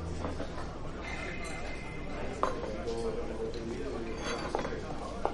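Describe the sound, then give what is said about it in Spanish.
A waiter sets two plates of food down on a table in a ministry cafeteria with a few sharp clinks and knocks, spaced a couple of seconds apart, over a steady murmur of background voices and dish clatter. “Un camarero les pone dos platos de comida sobre la mesa.”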